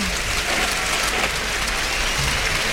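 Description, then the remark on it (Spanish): A bullring crowd in Almería gives a sustained ovation for matador Roca Rey as he salutes after the bull falls, dense steady applause and cheering that holds at a loud, even level throughout with no voices standing out. “Hay eh, Toro y Roca Rey que saluda la ovación.”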